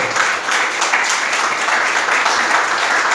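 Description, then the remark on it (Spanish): A church audience applauds as praise to the Lord, a dense, steady wash of many hands clapping at once, loud and unbroken for about three seconds with no voices on top. “Déselo al Señor, si le va a dar un aplauso, por favor.”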